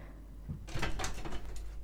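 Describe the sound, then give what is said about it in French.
A pet named Billy climbs up a door, producing a close series of quick scratching, rattling bursts that build over about a second with no talking. “le même effet à chaque fois de Billy qui monte, qui escalade la porte.”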